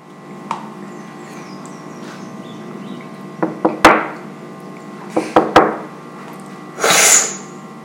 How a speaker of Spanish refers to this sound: Por eso lo que están oyendo es una cata de café en la cual varias personas están disfrutando de aprender a reconocer una buena taza de café o una mala taza de café. Y realmente lo que terminan conociendo es cuál es el café que más les gusta.